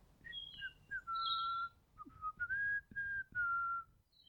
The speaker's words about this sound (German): Ich höre meine kleine Nachtigall.